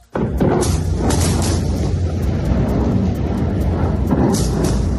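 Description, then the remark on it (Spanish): Heavy, continuous booming rumble of military airstrike explosions from a second consecutive day of US strikes on Houthi positions in Yemen, loud throughout, with sharper blasts breaking out near the start and again toward the end. No voices. “era el ataque que por segundo día consecutivo destruía posiciones de los eh, terroristas, esos que los eh, eh, buenistas llaman rebeldes”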